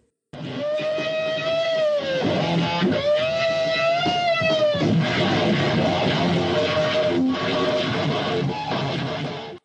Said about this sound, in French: jouera une version historique de l'hymne national américain, en solo de guitare, tout en distorsion, vibrato, saturation